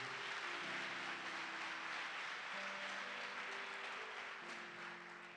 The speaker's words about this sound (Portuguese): Pode dar uma salva de palmas ao rei.